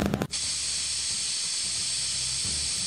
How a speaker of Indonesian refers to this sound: Iya menyemprot, menyemprot dengan baygon, baygon obat nyamuk hebat, nyamuk pergi, nggak balik-balik.